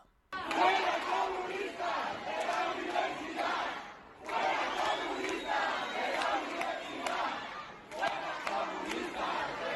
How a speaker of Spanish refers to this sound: Y también dentro del Mare Magnum se han escuchado consignas contra quienes han gritado fuera fascistas de la universidad.